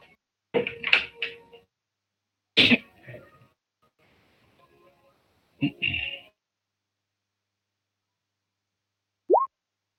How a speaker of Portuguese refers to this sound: Ouviu o barulho? Oi? Ouviu o barulho? Que barulho? Do teste? Não. Do dadinho rolando?